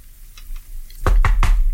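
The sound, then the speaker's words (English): Three sharp knocks on wood in quick, even succession, fairly loud, after a moment of faint background noise; no one speaks. “And uh, I, that is an inappropriate knock on wood.”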